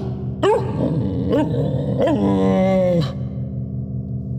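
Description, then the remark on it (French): A voice imitates a dog as the clone Inu Otoko Alpha, giving three rough, growly barks about a second apart, then a longer drawn-out whining growl, loud over a steady low hum. “Est-ce qu'il est prévu que ce clone aboie?”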